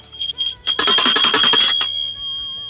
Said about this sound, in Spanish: Que, digan que es la campanita de mosca, güey.